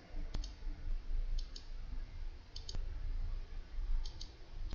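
A computer mouse clicking several times at irregular intervals, sharp brief ticks, a couple of them louder and others faint and paired, over a low, steady background rumble with no talking.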